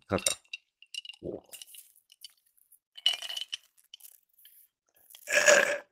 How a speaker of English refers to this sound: I feel like that sound was so satisfying. The, the, the. I just know it was people probably hate that sound. Sorry, I love I love the sound of slurping. Sorry, sorry, I do.